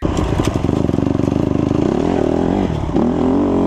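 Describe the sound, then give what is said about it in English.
The high-performance racing engine of a CRF 150R dirt bike runs loud, its rapid rattling pulse settling into a steady drone before briefly dropping and then revving back up to a high, buzzing pitch. “For example, the CRF 150R, the engine, it is a high performance engine that is made for racing.”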